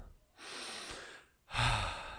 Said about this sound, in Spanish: Comienzo con mi técnica de respiración.